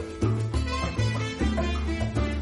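An upbeat Cuban son recording plays at full volume, a steady syncopated bass line and crisp percussion driving a lively dance rhythm, with no talking over it.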